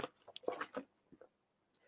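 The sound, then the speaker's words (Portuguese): Wet mouth sounds of someone sipping and swallowing water: a quick cluster of slurps and gulps, then near silence broken by one small click. “perdão, estou tomando um gole d'água.”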